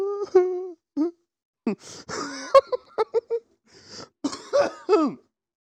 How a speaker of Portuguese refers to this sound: É um pigarinho. É um cuspão aqui, ó.